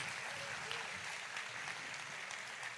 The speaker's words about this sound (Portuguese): Então, a salva de palmas para eles.